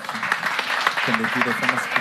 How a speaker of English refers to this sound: give all the teams oh, yeah. and their representatives a round of applause.